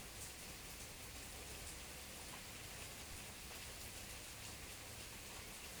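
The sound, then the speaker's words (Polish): Steady rain pours down, drops pattering densely on surfaces in a continuous, even hiss with no pauses. The sound is fairly quiet, with no voices. “Deszczowa woda obmywa wszystko wokół, wnika w ziemię, moczy ptasie piórka, daje napić się kwiatom.”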